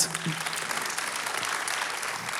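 Steady audience applause, a dense wash of many hands clapping at an even level throughout, with no break or talk over it.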